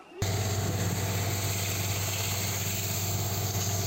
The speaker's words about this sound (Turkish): Maden şirketi ve Orman Bölge Müdürlüğü ekipleri ormana girdi. Bir hafta testere sesleriyle inledi İkizköy.